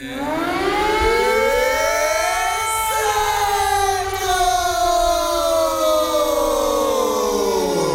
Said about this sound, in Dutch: Om bekend te worden als Incentro... kunnen we misschien wel het luchtalarm hacken. Dan krijg je de eerste van de maand ongeveer dit te horen.